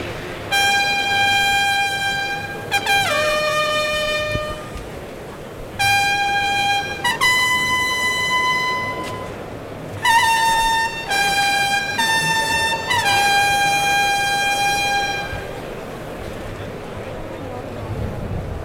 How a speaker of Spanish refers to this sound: Clarines que anuncian la salida del cuarto toro.